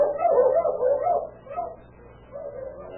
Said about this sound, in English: Suddenly, the savage barking of his dogs outside the little trailer house awakened him out of slumber.